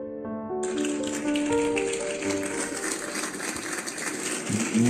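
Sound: audience applause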